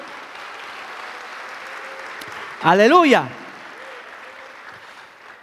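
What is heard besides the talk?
audience applause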